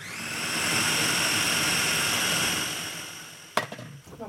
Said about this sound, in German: Eine Banane, Leinsamen, geschrotet, Hafermilch und Walnüsse. Nach dem Abwiegen kommen alle Zutaten in den Mixer, die Banane noch klein geschnitten.